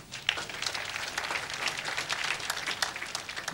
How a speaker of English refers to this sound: Clap for her.